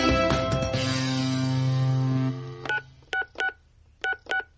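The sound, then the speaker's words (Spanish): A sustained tonal sound gives way to a quick series of short, sharp telephone dialing tones, each a crisp two-tone beep, spaced unevenly in small clusters, with no one talking. “Estoy llamándote, contesta por favor.”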